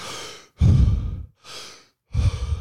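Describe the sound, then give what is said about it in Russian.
A person demonstrates holotropic breathing, deep and forceful: four loud breaths alternating quickly, airy inhales and heavier rushing exhales, part of a set of 30 inhale-exhale cycles, with no talking. “То есть у него это делаешь 30 вдохов-выдохов”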